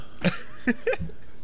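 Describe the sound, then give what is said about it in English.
Several short, sharp dog barks or yips, about three or four in quick succession, fairly quiet, with no talking over them. “Jeez, how many dogs do you have?”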